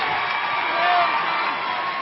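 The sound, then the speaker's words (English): A basketball crowd cheering as the Bears tie the game after a 13-point comeback, a steady, dense roar, loud and sustained throughout, swelling slightly in the middle with scattered shouts and whoops rising above the wash of voices. “Boy, this crowd is electric now.”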